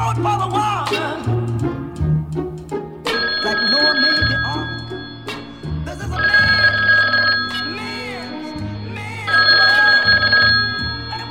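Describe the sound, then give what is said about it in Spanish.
A telephone rings loudly in three long bursts with short pauses between them, while voices and background sound continue underneath, as a caller phones in to request a song. “y ya tenemos una llamada.”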